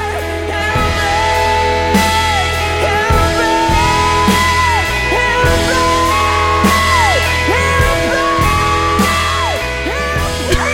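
A loud rock song with a powerful, soaring vocal that slides and wails between sustained high notes over heavy bass, pounding drums and dense guitars, staying intense throughout.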